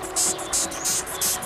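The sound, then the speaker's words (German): A death's-head hawkmoth squeaks in a steady series of four or five short, shrill, hissing bursts, evenly spaced, over a faint low hum, recorded via a tiny 0.2-gram transmitter. “Ein Nachtfalter namens Totenkopfschwärmer.”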